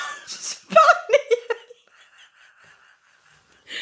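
A Cavalier King Charles Spaniel scratching at the door to be let in whimpers and yelps in a short burst of high whines mixed with laughter, followed by faint, thin whining and a soft scratch near the end.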